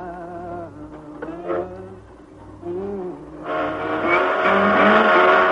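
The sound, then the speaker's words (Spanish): A car engine hums steadily, then swells louder and brighter as the moving vehicle approaches, its tone bending in pitch as it passes in front of the listener, a Doppler effect. No one speaks. “Cuando ese objeto en movimiento pasa frente a nosotros, sentimos un cambio de tono. A eso se le llama el efecto Doppler.”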